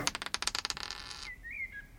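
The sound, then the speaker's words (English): Dice clatter in a quick burst of sharp, rattling clicks that slow and stop, a roll that comes up four, followed by a brief, high, gliding electronic tone. No one speaks. “Aha. I rolled a four.”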